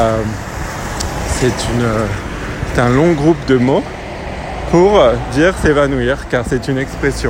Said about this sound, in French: Je suis désolé pour le bruit des bus à côté de moi, c'est assez bruyant. Euh, je passe à côté d'une route, ça va être un petit peu moins bruyant dans quelques minutes.